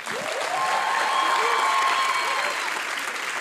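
A burst of audience applause, steady and dense clapping from many hands, with faint crowd cheers mixed in throughout.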